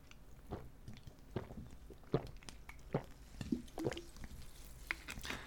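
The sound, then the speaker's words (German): Quiet wet mouth sounds as someone drinks a sip of water, with several soft gulps and swallows spaced irregularly over a few seconds and no talking. “Oder ich halte einfach mal kurz die Fresse und trinke jetzt einen Schluck Wasser, ja?”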